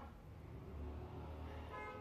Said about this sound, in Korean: 어, 엄청 빵빵거리시네 밖에 아, 그러니까.